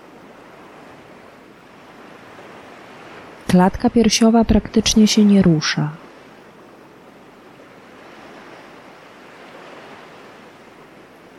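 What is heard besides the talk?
ocean waves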